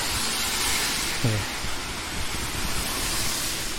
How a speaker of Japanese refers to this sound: ちょっと車うるさいっすね